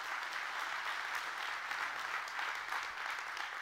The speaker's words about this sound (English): Our team worked so hard this week transforming our auditorium and the foyer and the property into a winter wonderland. I wonder if we could give them a great big hand clap today. They did a great job.